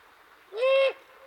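A single harsh, drawn-out screech from an immature great horned owl calling from a maple at the edge of the Sabinal River, rising sharply and holding for about a third of a second before cutting off, loud against faint background hiss.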